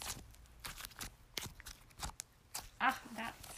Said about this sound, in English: Just saying, like, that's the sound of me playing with slime. Here's a little bit of ASMR.